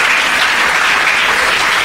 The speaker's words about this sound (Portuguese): Então dá salva de palmas a Deus, você está muito quietinho.